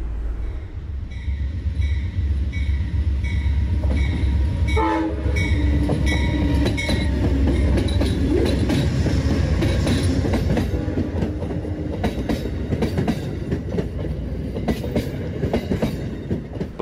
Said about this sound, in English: we've just passed train number 91, which is a southbound New York to Miami train.